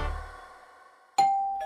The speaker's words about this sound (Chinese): 过了两天，依依家的门铃响了。